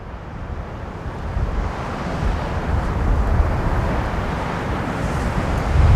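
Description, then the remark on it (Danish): Steady wind buffets the microphone over a continuous rumble of surf breaking along the shore in winter, a dense, unbroken roar with no voices present. “Nu er jeg nede ved vandet”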